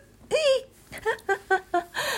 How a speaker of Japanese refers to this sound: もうやだ、しゃっくりが止まらない。